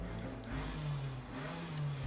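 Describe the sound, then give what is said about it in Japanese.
A steady motorcycle engine drone revs up and down in the background, with a low throbbing pitch rising and falling as the motorbike is throttled hard; no one speaks. “めっちゃバイクふかしたる”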